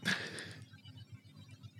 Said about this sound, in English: no, I just had a yawn